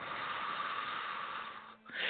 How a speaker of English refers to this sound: Let's inhale. Now exhale. One more time. Inhale. Now exhale. Inhale. Now exhale.